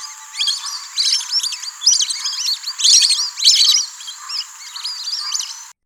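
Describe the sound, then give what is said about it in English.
A flock of lesser whistling ducks gives shrill, high whistling calls in rapid, overlapping bursts, rising and falling in loudness over several seconds with no voices present. “Their flight is noisy, characterized by rapid wing beats accompanied by shrill whistling notes that sound like seasick, seasick, seasick, seasick.”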